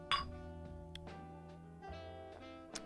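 Bottles of Kellerbier clink together once in a bright toast, the glassy ring lingering and fading over the next couple of seconds, with a faint knock near the end.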